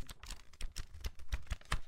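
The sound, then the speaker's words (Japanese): Sheets of paper rustle and crinkle in a quick, uneven series of crisp bursts, with no one talking over them. “プラスこの紙の音紙の音聞こえるかな”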